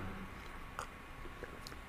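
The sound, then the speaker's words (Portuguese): Soft sipping and swallowing noises of a person drinking a little water, a few faint wet mouth clicks spaced out over a quiet background with no talking. “Deixa eu beber aqui um,”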